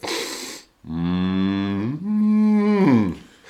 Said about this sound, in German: Deswegen habe ich aber auch die Kuh ganz am Anfang unseres äh, Podcasts gesetzt. Ich finde, nichts steht für äh, äh das ländliche äh, äh, äh, den ländlichen Lebensraum wie so eine schöne Kuh auf der Weide.